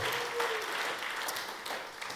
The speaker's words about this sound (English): So, should give them a final clap? All those the ones who came up, and parents, and those sorts of things. Well done.